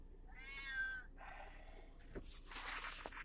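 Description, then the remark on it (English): A cat named Penny, carried in a coat, meows once in a drawn-out, wavering cry, followed by some breathy snorting and rustling noise, with no talking. “I could hear her crying on the other side of the bird. I have six cats, a turtle, and a bird.”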